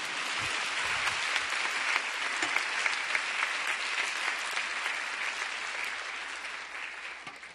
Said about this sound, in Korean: 네, 이쯤 되시면 박수 치셔야 됩니다.